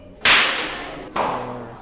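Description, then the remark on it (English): Two sharp balloon pops in South Tucson, about a second apart, each a loud crack fading away. The first is brighter and the second is slightly softer, with no voices. “They're popping balloons.”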